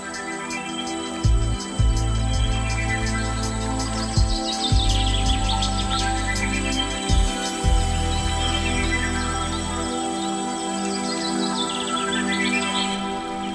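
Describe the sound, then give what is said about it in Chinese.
Chinese sparrowhawk calls: a run of high, thin, downward-sliding notes repeating in bursts, heard over a steady humming, musical-sounding bed with some low thumps. No one speaks. “好，今天呢，跟大家稍微的来分享一下赤腹鹰。”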